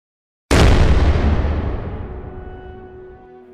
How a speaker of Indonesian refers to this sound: Wow, dia benar-benar meledak.